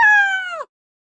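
A single clear cat meow, fairly loud, holding a steady pitch for just over half a second before dipping at the end, then silence.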